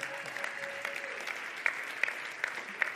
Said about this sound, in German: sie verdient diesen Applaus, ja, so absolut, ja.